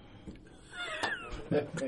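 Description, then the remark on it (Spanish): A person briefly imitates a cat's meow, a rising-and-falling mewing voice lasting about a second, moderately loud, with other voices chattering around it. “Va a estar en Florida un gatito”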